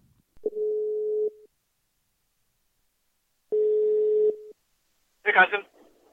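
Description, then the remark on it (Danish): Two long, steady ringback tones of an outgoing phone call to the head of women's football at FC Nordsjælland, each about a second, separated by a pause of a couple of seconds, followed by a brief burst of a voice answering. “jeg vil prøve at se, om ansvarlig for kvindefodbolden i FC Nordsjælland, …, han har lyst til at tage telefonen i dag”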